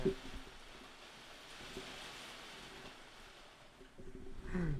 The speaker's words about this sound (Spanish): Vas a escuchar una lluvia de fondo, vas a escuchar como... ¿Eso? No sé si, si, escuchaste. Voy a voltear el teléfono ahorita que vuelva a sonarlo Porque está pegando toda la lluvia aquí en mi ventana.